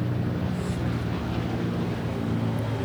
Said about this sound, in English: Maybe it's just one of those people over in Versailles are rich enough to have a Blackhawk helicopter.